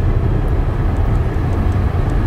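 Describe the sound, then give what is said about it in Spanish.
An electric car accelerating, heard as a loud, steady low rumble of road and motor noise with a faint high whine above it, continuous and without speech. “acelerando. Ahí vas.”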